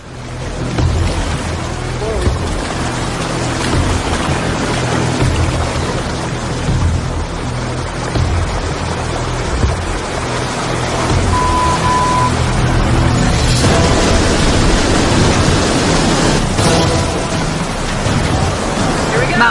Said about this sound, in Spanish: Chicos, hay rápidos y saltos de agua muy peligrosos. Id con cuidado.